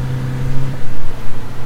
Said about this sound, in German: Der Bus fährt sich auch extrem schlecht und hört sich an wie ein Rasenmäher.